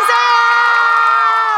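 A crowd that had stayed waiting to offer congratulations cheers, a loud, sustained high-pitched shout of joy that holds steady for under two seconds before dipping slightly at the end.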